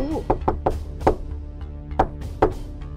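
Several solid, fairly loud knocks on the wooden door of the goats' house, made by the wolf in the tale of the wolf and the seven young goats, come in an uneven sequence: a quick run of three, a firmer knock, then two more spaced-out raps, with a brief voice fading at the start.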